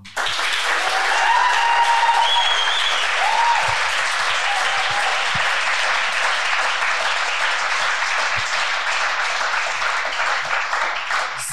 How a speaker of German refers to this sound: Deswegen könnt ihr jetzt alle einmal richtig fett applaudieren für die Base 5 Crew und äh, ja, laut werden.